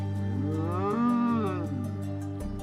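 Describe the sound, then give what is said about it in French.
A zebu lets out one long, loud moo, its deep droning tone rising and falling again before trailing off, with no voices around it. “Le zébu le fixait de ses grands yeux doux et paisibles.”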